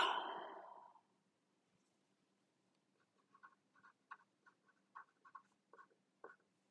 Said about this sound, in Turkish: Şimdi size bu hikayeyi anlatabilmek için yani olanları anlatabilmek için biraz not alıyorum.